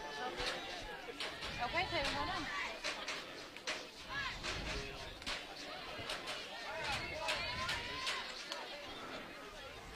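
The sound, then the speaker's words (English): A group of voices chants and calls out together from a team's dugout during a game, steady and rhythmic over crowd hubbub, with sharp accents like claps punctuating the cheering throughout. “Hear the chance coming from the Jasper Lady Dog dugout.”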